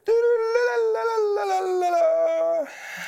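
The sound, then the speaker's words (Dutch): A dog lets out one long, loud howl close by, holding a steady wavering note that slowly sinks in pitch for over two seconds before cutting off into quiet background noise. “Het wordt meteen moderne kunst met zo'n hond naast je.”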